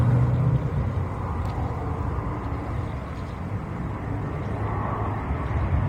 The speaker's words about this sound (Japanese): また飛行機撮ってますね